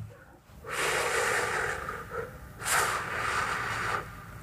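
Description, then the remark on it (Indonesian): A voice imitates breath blowing softly into an ear, like someone blowing wind into the ear of a person bowing during maghrib prayer: two long, airy, hissing exhales, the second starting after a brief pause, steady and fairly loud with no talking over them. “Nah, karena sholat saya kan agak nundukan gitu bang, saya agak nunduk di di telinga saya itu udah ada yang kayak nyupin angin bang”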